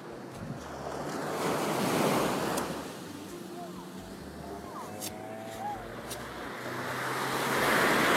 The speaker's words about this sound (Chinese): 一听到海的声音，你一下就觉得特别放松， 嗯， 就可以带回到垦丁的在地那个场景里面去了。